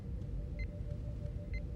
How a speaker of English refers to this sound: What happens is is the door to sick bay, Exio, you can hear that shield establish as a multiphasic shield goes up.